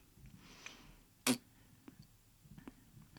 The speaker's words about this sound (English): I like sucked my lip in there. Don't worry. For those of you listening, that was a mouth sound.